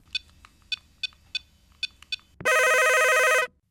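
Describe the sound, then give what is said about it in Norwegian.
A telephone at radio station Radio Revolt rings: several short, evenly spaced electronic chirps, then one loud sustained ring tone lasting about a second before cutting off. No one speaks. “Radio Revolt 6-telefon, vær så god.”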